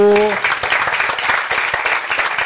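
A brief sustained tone opens, then a crowd breaks into loud, dense applause, many hands clapping steadily for the rest of the moment.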